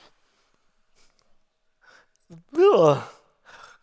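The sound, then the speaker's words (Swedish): A deep breath drawn in and let out with an audible, voiced sigh, soft breathy air on either side of the louder exhale. A brief spoken word follows. “Jag tar ett djupt andetag. Andas in och andas ut.”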